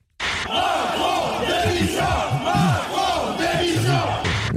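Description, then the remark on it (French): On the first day of a show, a large crowd chants a protest slogan in unison, loud and sustained, with rhythmic rising and falling voices repeating the phrase over a dense roar of many people. “Le slogan qu'on a beaucoup entendu le premier jour, c'est celui-là.”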